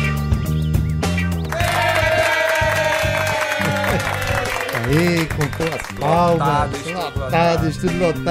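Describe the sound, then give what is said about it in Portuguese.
A burst of electronic applause effect runs steadily for about eight seconds, loud and continuous, mixed with wavering cheering voices and tonal sounds layered on top. “de das nossas palmas eletrônicas afetivas.”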